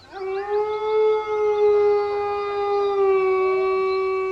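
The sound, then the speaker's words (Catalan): A large gray wolf standing on hard rock howls at night under a full moon in a cool spring wind, one long, sustained, steady loud tone holding for several seconds, with rich harmonics and a faint wavering quality, echoing across the cliffs and valleys of a mountain range, no other voices present. “Ferm sobre la roca dura, el gran llop gris odolà amb energia.”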